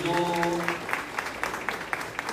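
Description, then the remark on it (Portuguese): A crowd applauds steadily, with sharper claps landing at a regular beat through the dense wash of clapping. A brief sustained tone sounds at the start, then fades under the applause. “Vamos aplaudir aquele que é maravilhoso.”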